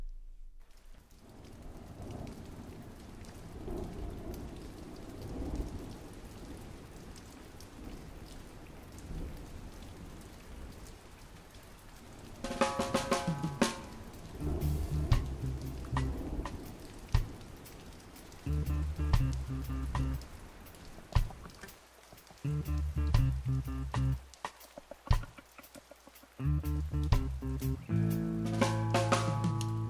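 Heavy rain pours down in a steady, dense hiss, with low rumbling underneath. About halfway through, music with strong bass and tonal instruments comes in over the rain.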